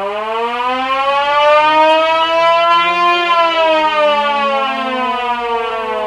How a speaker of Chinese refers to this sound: 剑桥机场的空袭警报拉响了。